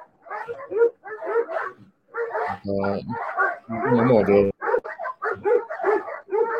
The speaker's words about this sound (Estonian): siin on pilgud ja kehakeel ja kõik on väga vihased mida rohkem see aed lahti läheb, noh siis lõpuks üldse koerad loobuvad sellest haukumisest